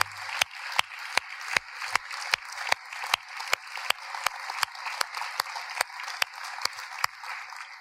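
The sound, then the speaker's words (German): Audience applause at a church, given to the church's leaders: a dense wash of clapping with sharp, evenly spaced claps cutting through about twice a second, as if the crowd is clapping in time. Steady and moderately loud throughout, with no talking. “Und darum geben wir doch einen großen, großen Applaus jetzt allen Leiter und Leiterinnen unserer Kille.”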